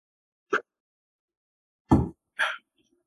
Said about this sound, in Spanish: Perdón si suena como ACMR, estoy tomando agua.